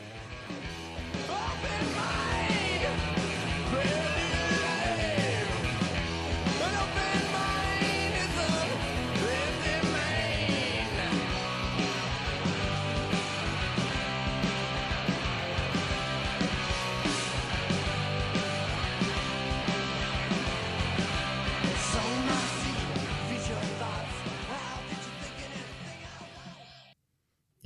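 A loud, dense early grunge rock song plays continuously, with heavy distorted guitars and pounding drums under raw, shouted vocals, then ends abruptly.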